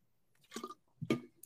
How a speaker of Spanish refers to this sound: No, estoy tomando esta agua que se llama Vitamin Water, se llama, ¿no? Es una agua con vitaminas vitamina B, vitamina C, obviamente para que no te enfermes, ¿no?